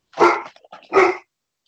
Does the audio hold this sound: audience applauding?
no